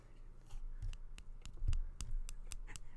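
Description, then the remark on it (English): Mike and Ike chewy candies are tapped and clinked together, making a quick series of light, dry clicks at an irregular rhythm, about ten in a few seconds, with no voices. “And then you also, you also like to take, um, Mike and Ike's from the last Fun Sons episode, and you like to clink them together.”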